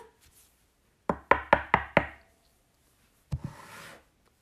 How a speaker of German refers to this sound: Warte mal. Wenn ich hier klopfe?